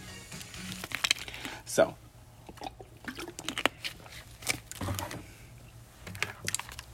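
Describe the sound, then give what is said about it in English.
A plastic water bottle is handled: irregular crinkles, crunches and sharp clicks scattered over several seconds, with a low steady hum underneath. “Um I had to go get me a cup of water, a bottle of water.”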